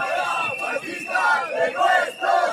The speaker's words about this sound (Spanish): Pues los manifestantes aguantaron casi 10 minutos gritando contra Javier Ortega Smith de Vox. Y por allí, efectivamente, como hemos dicho, cayeron globos llenos de agua y huevos.